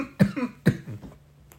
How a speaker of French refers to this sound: Je suis en train de m'étouffer son père, je vais me faire couler un verre d'eau.